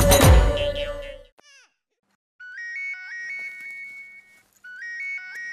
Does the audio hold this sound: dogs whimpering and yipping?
no